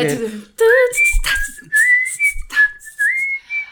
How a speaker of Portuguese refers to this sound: e esse assobio, esse assovio, mas eu li também que pode ser falado assobio. Assobio? Assobio. Assobio, assovio. É. E ela traz né? toda uma alegria, né?